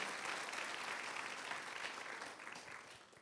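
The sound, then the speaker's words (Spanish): An audience applauding God in gratitude, a steady dense wash of clapping from many hands that holds for a few seconds and then gently tapers off near the end. “Aplaudámosle con gratitud a Él, por favor.”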